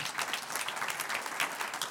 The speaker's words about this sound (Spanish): Levante su mano si usted ha perdonado a personas que le han hecho daño y usted hace, dele un aplauso al Señor en victoria.